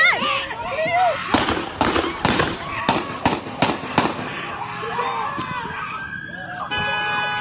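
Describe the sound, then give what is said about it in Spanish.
Seven sharp, loud gunshots, fired by police officers at an African American man who had got into a car, crack out in quick, uneven succession after frantic shouting voices; a siren-like wail rises near the end. “O sea, como que si con un disparo no fuera suficiente, ¿no? Hay que darle siete balazos para que, para que amarre.”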